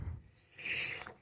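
A single sharp sneeze bursts out, a brief hissy blast of air lasting under half a second, with no talking around it.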